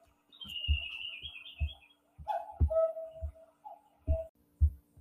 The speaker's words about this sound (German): also heute ist der Wurm drin, jetzt ging meine Kuckucksuhr wieder los. Und nein, ich kann das nicht voraussagen, weil unsere Kuckucksuhr spinnt. Die äh, kuckuckt immer zu ganz unterschiedlichen Zeiten.